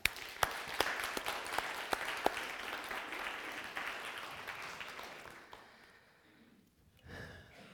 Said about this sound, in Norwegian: en god klapp for, folkens.